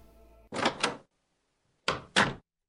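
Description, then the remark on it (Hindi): An office door opens on a rainy morning with two separate pairs of sharp clunks and rattles, about a second apart, with silence between them and no voices. “मैं अपनी डेस्क पर पहुंचा और काम करने लगा कुछ देर बाद ऑफिस का गेट खुला”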